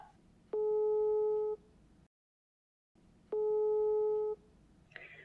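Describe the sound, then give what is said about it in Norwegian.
Two steady electronic ringback tones from an outgoing phone call, each lasting about a second with a short pause between, heard clearly over faint background hiss. “tenker vi bare ringer Signe”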